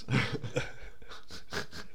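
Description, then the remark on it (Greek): Dogs pant in a room in a quick, steady rhythm of breathy huffs, several bursts over two seconds, fairly loud with a faint low hum underneath and no talking. “Έχουμε και αυτά τα σκύλια.”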